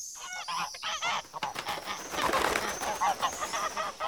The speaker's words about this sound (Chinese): 这时，一群野雁飞过。尼尔家的白鹅莫顿一看见野雁，就兴奋地嘎嘎乱叫。